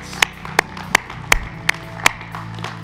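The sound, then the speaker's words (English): An audience claps in unison as a clap of praise, six sharp, evenly spaced claps at a moderate tempo over a low background hum, with no one speaking. “Let's give him a clap, a clap of praise.”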